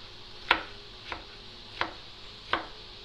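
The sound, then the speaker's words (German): A knife chops the second half of a bell pepper into pieces on a cutting board, cutting lengthwise and then crosswise, four crisp strikes at a slow, steady pace with quiet room tone between them and no talking. “Schneide da auch wieder so Stücke längs ab und dann quer.”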